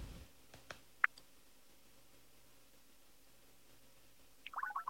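A single crisp click of an on-screen phone button, a couple of fainter taps around it, then a short flurry of soft electronic blips near the end, while call and profile options are selected in a phone menu to place a call. No one speaks.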